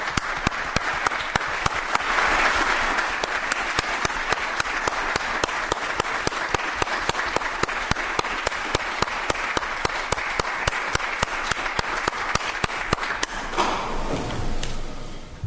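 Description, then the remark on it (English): An audience applauds firefighters who are present and standing, a dense wash of many hands clapping at an even, loud level for about thirteen seconds, then tapering off quickly into a low murmur. “We'd like to give them a round of applause.”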